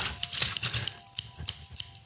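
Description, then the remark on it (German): Scissors snip repeatedly, a quick irregular run of crisp metallic clicks and scrapes, fairly quiet, with no voices. “Also, liebe Zuhörer, hört die Schere.”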